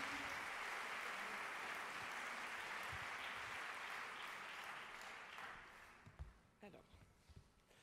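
An audience claps steadily, a dense wash of many hands that holds for several seconds, then thins out into a few scattered, fading claps near the end.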